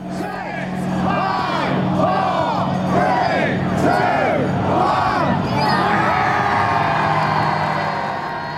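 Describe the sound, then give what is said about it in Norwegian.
A large crowd of Brexit supporters outside Parliament and Big Ben in London counts down together on the evening of Brexit day in loud rhythmic shouts, each call rising and falling, swelling into sustained cheering and whooping at the end, with a steady low hum underneath. “Utenfor parlamentet og Big Ben i går kveld var det begeistret nedtelling fra brexit-tilhengerne.”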